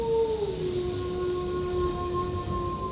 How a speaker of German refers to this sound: Ist das ein Scheißwolf gewesen? Ich hoffe nicht, ne? Ich hoffe nicht. Gibt's hier Wölfe in der Gegend bei dir in Hessen?